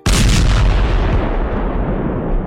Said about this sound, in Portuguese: Você aperta, você nem consegue ver ou mesmo ouvir o cara gritando, mas a explosão joga os dois longe e você, você consegue ouvir uma segunda, uma segunda onda explodindo o que quer que seja que tinha lá embaixo